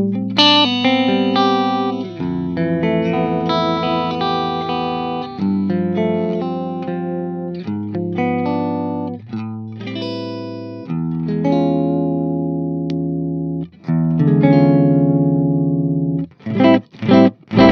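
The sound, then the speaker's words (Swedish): An electric guitar plays through heavy distortion, loud and full, holding thick sustained chords that change every second or two before breaking into short, choppy stabs at the end. No voices. “Jag tycker nästan att det var som bäst, men det är att den där gitarren är så fyllig i sig”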